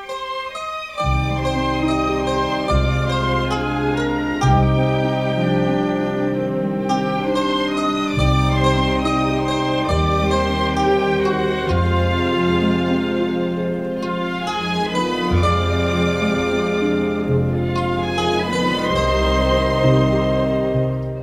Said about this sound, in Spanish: Ese tema del padrino que todo el mundo conoce, hasta los que no han visto el padrino, han escuchado la canción